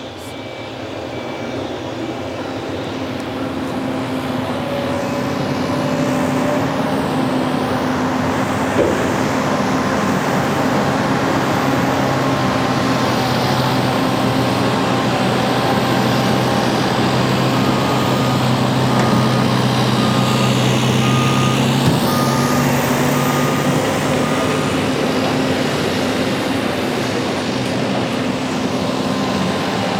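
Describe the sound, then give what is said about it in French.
A busy construction site of the Belo Monte dam works, with heavy trucks and machinery. A loud, steady low engine rumble with droning tones swells in over the first few seconds and holds for the whole stretch, with no voices. “Donc nous avons le site Pimental, le site Belo Monte, les canaux, mais aussi les grands travaux sur le port, là où le matériel arrive. Ce sont plusieurs chantiers dans différents endroits et en simultané.”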